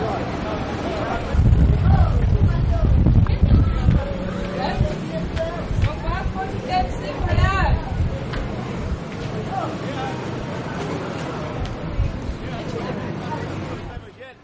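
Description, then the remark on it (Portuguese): A bustling downtown street in the centre of Belo Horizonte, full of overlapping voices and crowd chatter, with a low traffic rumble that swells early on, steady throughout. “desde pequeno eu observo os sons do centro de Belo Horizonte, né?”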